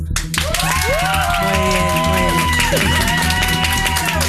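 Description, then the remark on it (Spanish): An audience claps and cheers steadily for about four seconds for contestant Roy in an applause vote where the least applauded contestant is out, a dense wash of applause with high shouts and whoops rising and falling over it, plus a low droning hum underneath. “Al, al que menos aplaudáis está fuera. Entonces, de primeras, ¿cómo es el ruido para Roy?”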